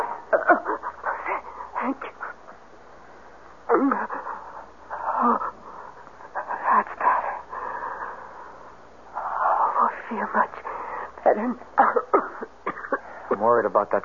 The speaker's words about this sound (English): cough? It's nothing. Uh, just very dry.